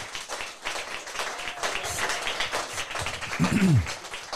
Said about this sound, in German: Ja, Applaus für euch beide.